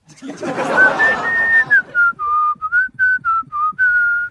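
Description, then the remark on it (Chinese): Someone whistles a simple tune with their mouth: a long sustained note, then a run of short, clear notes at a similar middle-high pitch, after a brief breathy rush at the start. “那你不行，那你吹口哨吧。”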